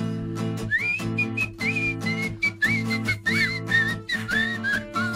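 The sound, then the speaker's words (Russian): A person whistles a lively, wavering melody, the notes sliding and bending over a steady, sustained low musical backing that continues underneath throughout. “выражительный свист.”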